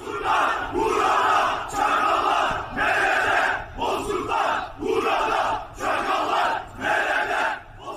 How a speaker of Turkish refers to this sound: Cenazeye katılan öfkeli kalabalık Bozkurtlar burada, çakallar nerede diye bağırıyordu.